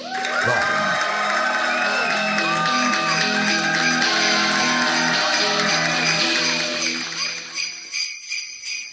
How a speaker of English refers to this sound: Ah, those sleigh bells can only mean one thing it means that I found a royalty YouTube royalty free YouTube clip